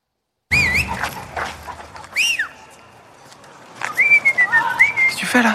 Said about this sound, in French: Laisse-moi gérer, ça c'est des codes de cité, j'ai vu ça dans un reportage. Pourquoi tu siffles, connard